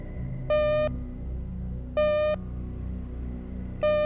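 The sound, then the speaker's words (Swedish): A loud electronic beep repeats three times at steady intervals of about a second and a half, each tone lasting under half a second, over a low rumbling background hum. “Du hör ett pip.”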